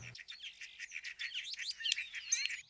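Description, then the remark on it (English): Starlings chatter in a busy, continuous stream of squeaky whistles, clicks and rattling notes, moderately loud, with rising whistled phrases near the end and no one talking. “This noisy and gregarious bird spends most of the year in flocks.”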